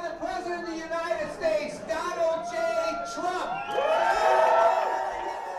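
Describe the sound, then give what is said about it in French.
Dense crowd chatter in a huge, packed bar in Cleveland where Trump supporters gathered, unmasked and crowded together, to follow a debate: many overlapping voices talking and calling out at once, swelling louder toward the end with a few excited shouts and whoops. “Voilà, vous entendez, il y a du monde.”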